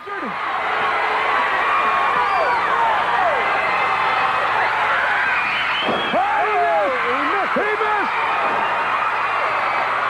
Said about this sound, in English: There's a steel folding chair and the fans are going nuts. Take a listen to this.